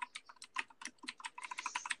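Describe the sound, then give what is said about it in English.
Rapid typing of a Google search on a spring keyboard used for playing World of Warcraft, a quick, uneven stream of sharp clacky keystrokes, fairly quiet, with no one speaking. “Man, listen to you typing away.”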